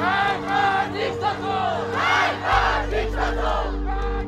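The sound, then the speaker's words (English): A large crowd of demonstrators chants "Death to the dictator" in unison in the streets of Tehran, Iran, loud rhythmic shouting rising and falling in repeated waves, with a steady low rumble underneath in the second half. “In the capital, Tehran, demonstrators chanted, Death to the dictator.”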